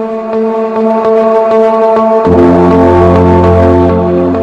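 An instrumental music track, used as a radio show's closing theme, plays loudly with no voices: sustained chords over a steady pulsing beat, then a deep bass line swells in halfway through and fills out the sound.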